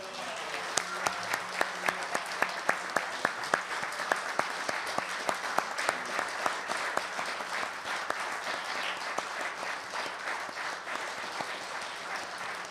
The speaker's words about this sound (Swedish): Ställ er där så alla får se er, om ni orkar stå på era ben efter de här arbetsdagarna. En ljuvlig och stor och varm applåd!